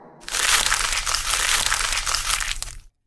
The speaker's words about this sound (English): I spelled mooncake with a seven by accident. So then I crumpled up the paper, and now I'm writing it again.